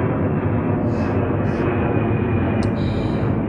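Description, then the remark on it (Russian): An airplane passes overhead with a loud, steady roar, a dense low rumble that holds unbroken throughout, with a few faint hissing flickers riding on top. “Когда видите самолеты, всегда так говорите, чтобы они долетели спокойно.”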